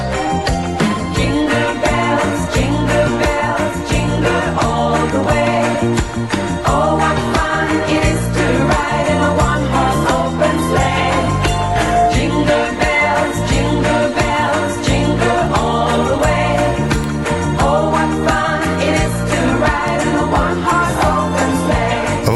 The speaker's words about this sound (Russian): Но песня, да, у них новогодняя есть.